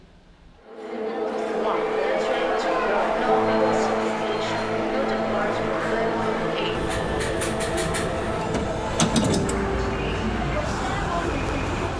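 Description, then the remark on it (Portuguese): A commuter train in Rio de Janeiro rolls along the rails with a steady, loud rumble and humming tones, sharp metallic clacks and squeals breaking in near the end, and indistinct voices murmuring beneath. “o sufoco do trabalhador que depende dos trens no Rio de Janeiro.”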